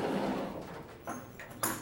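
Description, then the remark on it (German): A door is opened over steady background noise, with a soft scrape followed by a sharper clack near the end. The sound is moderately quiet, and no one speaks. “Ich mach, ich mach kurz die Tür hier auf.”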